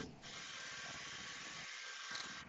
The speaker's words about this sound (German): ist, glaube ich, mit dem Staubsauger ab abgehauen kurz.